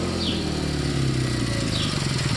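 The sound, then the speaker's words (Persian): A motorcycle engine rumbles steadily as it comes through an alley, its low putter holding at an even loudness for the whole stretch, with no voices. “روزایی بودن که شما میدونستین که وقتی صدای موتورسیکلت از توی کوچه میاد ممکنی موتورسیکلت صداش در خونه شما قطع بشه”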